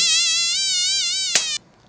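A loud fly buzzes steadily with a wavering whine for about a second and a half, then a sharp tap sounds and the buzzing stops abruptly, leaving silence.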